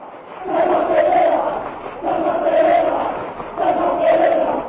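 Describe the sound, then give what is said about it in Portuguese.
Palmeiras football fans cheer in a TV show studio as Uruguayan Palmeiras full-back César Pereira enters, a loud group of voices chanting and shouting in three rhythmic swells over a continuous crowd roar. “Os palmeirenses acertaram a resposta e festejaram quando o uruguaio César Pereira, lateral do Palmeiras, entrou no estúdio.”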